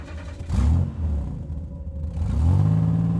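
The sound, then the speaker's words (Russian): A car engine turns over and revs up, its low rumbling drone rising in pitch as the vehicle pulls back onto a highway, steady and fairly loud with no voices. “простонал Монк, снова выруливая на шоссе, чтобы увеличить расстояние, разделяющее их и покалеченный ими Бьюик.”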